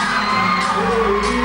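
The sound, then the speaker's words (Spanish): A concert crowd screams and whoops nonstop for a band playing a gig, a loud, dense wall of high-pitched cheering that holds steady for the whole moment, with sustained tones running beneath it. “gente gritando así por mi banda en mi vida, weón.”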